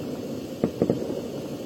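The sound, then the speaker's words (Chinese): Three sharp firecracker bangs go off over a steady hiss: one pop, then a quick pair a moment later, each short and punchy. No one speaks. “这个炮声简直太给力了。”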